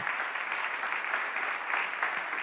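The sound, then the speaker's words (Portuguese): An audience applauds the Lord, a dense, even wash of many hands clapping at a constant moderate level with no pauses and no voices standing out. “Você pode novamente aplaudir ao Senhor?”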